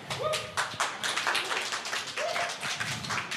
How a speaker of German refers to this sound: Also, also äh, äh, Applaus für Mega Man.